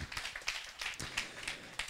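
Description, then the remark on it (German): A crowd at the 132nd Celebration at ICF Bielefeld claps in dense, overlapping patter that holds steady for a couple of seconds. The clapping is fairly soft and has no voices over it. “Ja, du, ihr dürft gerne klatschen dafür.”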